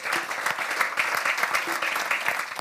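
Steady audience applause, a dense wash of many hands clapping at an even loudness for a few seconds, with no voices standing out above it.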